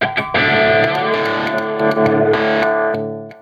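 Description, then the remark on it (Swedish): A loud, heavily distorted electric guitar tone from a distortion pedal lent by Fölster, with a couple of short picked notes, then thick sustained chords full of buzzing harmonics, with no one speaking. “Eh, och det här var ju en, eh, en pedal som eh, vi hade med på vårt retreat sist.”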